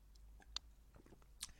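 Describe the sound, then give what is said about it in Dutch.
Someone quietly sips water, with two soft, wet mouth clicks and faint swallowing sounds in between, and no talking. “Sorry, even een slokje water.”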